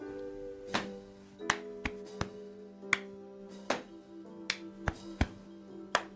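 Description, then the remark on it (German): Body percussion from a music theatre piece, with hands slapping thighs and then clapping, makes about a dozen sharp, crisp hits in a loose rhythmic pattern over a steady, faint tonal hum. No one speaks. “Zum Beispiel kann man mit den Händen auf die Oberschenkel klopfen und dann in die Hände.”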